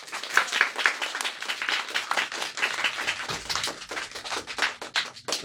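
A burst of applause from a small group welcoming guests, dense overlapping hand claps at a steady moderate level lasting the full few seconds, with no talking over it.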